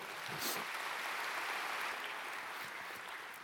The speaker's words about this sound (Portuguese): Você pode dar um grande aplauso ao Senhor?